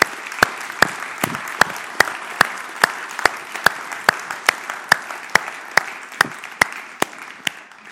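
An audience applauds steadily for several seconds to thank a team, a dense wash of clapping with sharp individual claps standing out in a fairly regular beat, moderately loud and with no voices.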